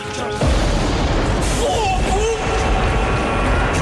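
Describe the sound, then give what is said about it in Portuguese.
A thunderclap sound effect of lightning nearly striking a man on a stormy day bursts in with a sharp crack, then a heavy, loud rumble rolls on for several seconds, with a faint voice audible beneath the roar. “leva com um raio em cima num dia de tempestade”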